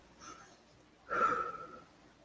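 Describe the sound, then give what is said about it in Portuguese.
A voice imitates a sharp inhaled drag on a cigarette: a brief, faint breathy sniff, then a louder hissing intake of breath lasting about half a second, alone. “Aí vai dar outra fungada no cigarro.”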